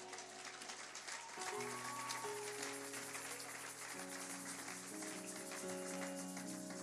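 An audience claps and cheers steadily for several seconds, acclaiming the Lord, a dense, continuous wash of applause layered over sustained keyboard chords that shift pitch as the music plays on.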